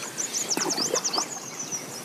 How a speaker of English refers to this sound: it's not like there's a bird song here and a bird song there. It's just this kind of wash of sound.